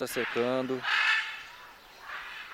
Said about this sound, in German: An vielen Stellen im Nationalpark und seiner Umgebung sind morgens und abends die Schreie von Papageien zu hören, wenn sie von ihren Schlafbäumen zu Fressbäumen fliegen.